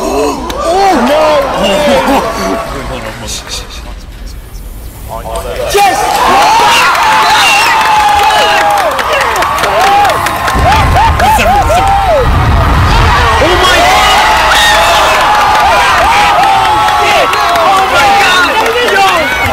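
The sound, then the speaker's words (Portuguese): A cinema audience erupts in loud, sustained cheering, whooping and excited shouting at a film scene, many voices overlapping; the roar dips briefly early on, then surges back and stays intense to the end. “Estão mesmo a todos flipar. contentes, completamente contentes com a cena.”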